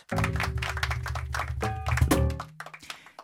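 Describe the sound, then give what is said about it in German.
A school class clapping together in a dense, steady patter of hand claps that lasts a couple of seconds before quickly fading away. “Mir klatschen.”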